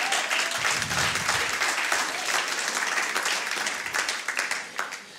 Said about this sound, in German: Lass uns doch mal allen Applaus geben, die heute zum ersten Mal da sind.